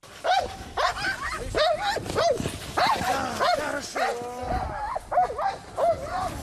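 A Special Operations Forces (SSO) service dog barks repeatedly and forcefully during training, a rapid string of about a dozen loud barks with brief pauses between bursts, carrying on steadily throughout.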